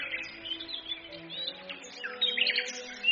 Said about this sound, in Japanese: この時期、ウグイスは春の息吹を感じて、心地よいさえつりで伴侶を探します。